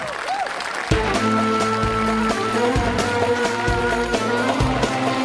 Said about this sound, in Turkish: Şöyle şuradan alkışı verin bakayım.